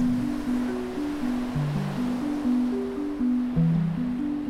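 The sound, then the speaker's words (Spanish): Steady ocean surf washes and swells continuously, with a low, sustained musical tone shifting slowly underneath; no voices are present. “En mi caso, el mar es el territorio que me empuja a preguntarme por el sentido de las cosas.”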